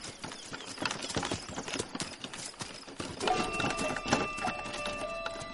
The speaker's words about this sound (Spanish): ¡Arre, caballo! ¡Arre! ¡Vamos!